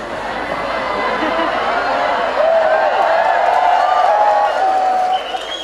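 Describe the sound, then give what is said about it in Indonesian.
A crowd claps steadily and fairly loudly for about five seconds, with a sustained cheer or whistle rising above the clapping midway before it cuts off near the end. “ngono ya tepuk tangan”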